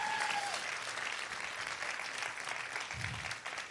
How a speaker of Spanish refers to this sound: Vamos a dar un aplauso más fuerte a Jesús.